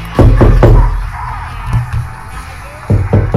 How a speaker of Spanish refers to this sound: Uy, espera que están golpeando la puerta.